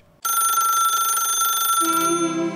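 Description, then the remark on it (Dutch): A telephone rings loudly and steadily with a bright, buzzing electronic tone that shifts lower near the end, with no talking over it, as former Dutch national coach Ronald Koeman calls in. “het fundament van het succes hier op dit WK is, is gelegd door de man die zo weer aan de bel hangt.”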